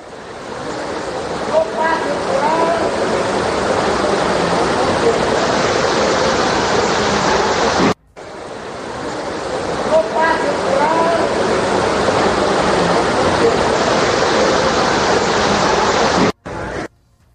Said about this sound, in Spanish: Mire, para que usted se, dé una idea, vamos a escuchar cómo es que el agua llegaba al interior del Aeropuerto Internacional de la Ciudad de México.